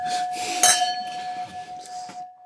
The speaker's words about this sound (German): wir klingen nochmal, damit es nochmal richtig rund wird. Jetzt so schön, schön lang. Ja, das Klangbild.